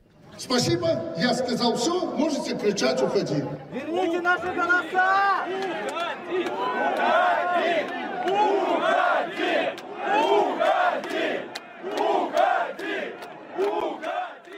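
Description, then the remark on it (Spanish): A large crowd of workers at a vehicle factory in Belarus shouts together at Lukashenko that he must resign, many raised voices overlapping into a loud, continuous roar with rising and falling yells throughout, no single voice standing apart. “Y este lunes, después de que Lukashenko dijera en una fábrica de vehículos que no entregará el poder y prometiera cambios constitucionales, los trabajadores le gritaron que debe dimitir, según este vídeo publicado por The Guardian.”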